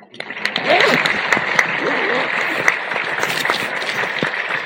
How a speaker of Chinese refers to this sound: 再一次最真诚的掌声来献给我们父亲。